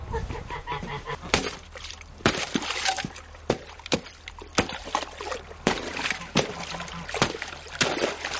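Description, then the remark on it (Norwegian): Ice is broken to get drinking water for animals, with a series of sharp, loud cracking knocks at an uneven pace, about ten blows in all, while geese honk and a voice murmurs in the background. “Knus isen litt, så vi kan få noe å drikke.”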